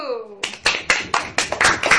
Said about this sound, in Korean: 박수!